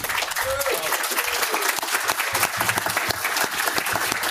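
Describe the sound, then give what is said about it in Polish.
A room full of people clapping steadily for the host's wife, a dense wash of applause that holds at an even level for the whole stretch, with a faint voice briefly audible underneath. “Dla mojej żony też brawo, bo ogarnęła tutaj”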